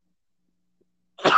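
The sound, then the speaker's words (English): A single sudden, explosive sneeze bursts out after a stretch of silence, loud and breathy, and is cut off abruptly. “I feel like I got a sneeze, sneeze coming on.”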